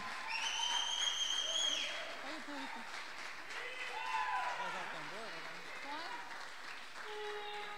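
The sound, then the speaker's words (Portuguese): A church audience applauds Jesus for the life of the evening's minister as she is called up, a dense, sustained wash of clapping, with scattered cheers and voices calling out over it throughout. “Aplauda Jesus pela vida dela, igreja.”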